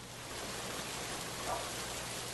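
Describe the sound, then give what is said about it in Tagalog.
Heavy rain suddenly pours down near a waiting shed in a steady, dense hiss that fills the whole clip, constant with no pauses and no voices. “Ngunit nakakailang hakbang pa lamang ako mula sa waiting shed ay bigla na lamang bumuhos ang napakalakas na ulan.”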